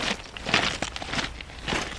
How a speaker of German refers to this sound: Jetzt laufen wir also gerade über ein Kiesbett unter der Brücke durch.